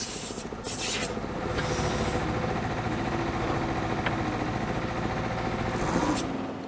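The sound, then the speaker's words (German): A press drilling machine used by sewer builders grinds steadily as it drives its drill head slowly through soil, boring a channel from pit to pit: a loud continuous rasping rumble with a low mechanical hum underneath and brief scraping bursts near the start. “Solche Pressbohrmaschinen vereinfachen die Arbeit.”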